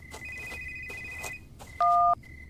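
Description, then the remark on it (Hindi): A telephone rings late at night with steady electronic tones over a low background rumble, ringing again after a short pause, then a louder, brief two-tone burst sounds near the end. No one speaks. “लेकिन एक छोटे से अंतराल के बाद फोन की घंटी फिर से बजने लगी थी वो कुछ बुदबुदाती बड़बड़ाती कमर सीधी करती हुई फोन उठाने को चल दी थी”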